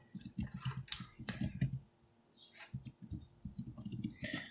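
Rapid clicking of computer keys being typed on, fairly loud, in irregular bursts with a brief pause in the middle. No one speaks.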